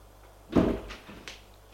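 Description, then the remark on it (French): A door opens with a dull, solid clunk of the latch, followed by two softer knocks as it swings, all heard alone without voices. “La porte qui s'ouvre.”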